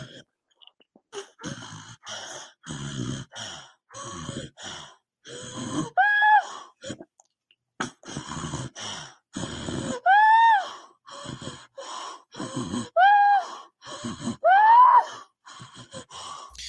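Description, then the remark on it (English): Labored, ragged breathing of a daughter after a seizure, in an uneven series of heavy, raspy breaths, several ending in strained, rising wheezy gasps, with brief pauses between them. “she's been doing this thing where uh, her seizure is either over or mostly over, and yet she still has trouble breathing for a while afterwards.”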